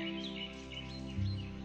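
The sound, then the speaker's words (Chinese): Birds chirp and twitter in quick, high, warbling bursts over a steady low hum, the calls overlapping continuously for the whole short stretch at a moderate level. “鸟儿马上飞了进去，啾啾地叫得好欢快。”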